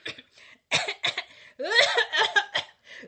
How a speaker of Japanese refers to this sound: ところで、その咳はいつから続いてるんだい